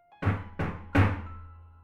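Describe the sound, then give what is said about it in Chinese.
Three heavy, hollow knocks on a small bathroom door, evenly spaced with the third landing loudest and leaving a short ringing decay. No voices are heard. “接着敲门声又响起来了”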